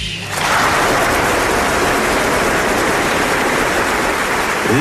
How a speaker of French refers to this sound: les applaudissements, les applaudissements des spectateurs du Royal Albert Hall le 11 septembre 2001. Ils applaudissent Hélène Grimaud et l'Orchestre de Paris, un concert qui s'était transformé en hommage aux victimes des attentats de New York.